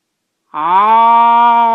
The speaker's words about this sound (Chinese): 狮子实在没招了，只好盯着马彬先生的眼睛，张大嘴巴，吼出生平最响亮的声音